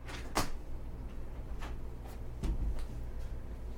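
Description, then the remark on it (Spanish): A door is handled and swung open indoors after a knock: a sharp latch click, a few lighter clacks, then a heavier thump and rattle, over a low steady room hum. “están tocando la puerta. Entren.”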